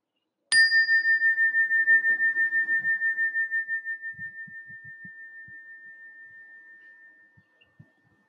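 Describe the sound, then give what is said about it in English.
A single meditation chime is struck once at the end of a meditation practice and rings out with a clear, pure tone, its shimmering sustain slowly fading over several seconds until it dies away into silence. “We have come to the end of the practice, and with the sound of the chime, you may gently open your eyes.”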